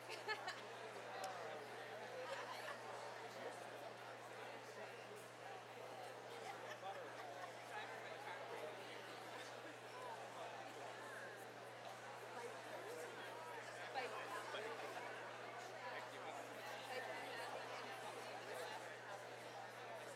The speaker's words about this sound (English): There's a big buzz around the, around the auditorium today. Look at that. You don't want to stop talking.